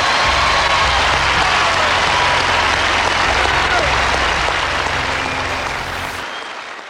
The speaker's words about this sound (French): Lors de la cérémonie d'après-match, Borg reçoit une standing ovation du Louis Armstrong.